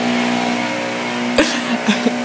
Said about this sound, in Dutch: Ehm, oh, er is hier ondertussen de bladblazer, maar dat horen de luisteraars waarschijnlijk ook. ja, die zal zo wel voorbij zijn.